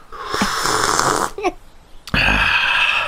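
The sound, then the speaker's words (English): A voice mimics wet slurping noises, a long sucking, hissy stretch, a brief gurgle, then another loud breathy slurp after a sharp break. “I mean, probably not as loud as it seems, but you're trying to get back to sleep and you can just hear the sounds of sort of slurping and like sort of like a”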